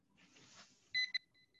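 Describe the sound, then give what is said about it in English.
A flat's door intercom buzzer beeps loudly twice in quick succession, followed by a few fainter, shorter repeat beeps trailing off, with a soft rustling background before it. “I'm pretty sure it is the Italian guy because he always buzzes the flat.”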